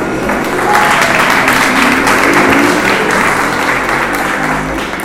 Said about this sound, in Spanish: ¿Cuánto dan un fuerte aplauso a Dios por eso?